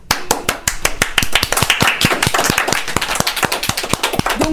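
An audience applauds steadily to welcome young presenters from the youth service of the town of Arcueil. Many hands clap in a brisk, fairly even rhythm that stays loud throughout, with no voices heard over it.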